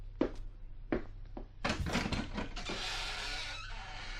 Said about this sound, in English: Oh, oh, uh, let me open the door for you.